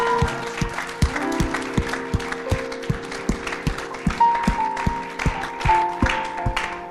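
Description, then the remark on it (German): An audience claps together in a steady, even rhythm, sharp beats repeating about three times a second, over sustained musical tones underneath, with no talking. “Lass uns der Person einen fetten Applaus geben.”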